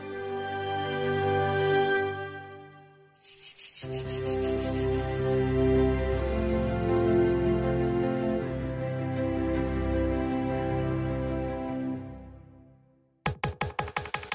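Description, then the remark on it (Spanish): Cicadas sing in a loud, steady, high-pitched buzz that starts a few seconds in and carries on for several seconds over soft sustained music, then fades. “Sin embargo, me di cuenta de que la vibración de esa entrañable amistad y la relación que tuvimos los dos matrimonios resuena en mi alma tan fuerte como el canto de las chicharras.”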